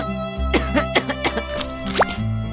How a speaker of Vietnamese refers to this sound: Bà ơi, bà dậy uống thuốc đi cho đỡ ho ạ à. Bà ơi, bà nhanh khỏi bệnh nha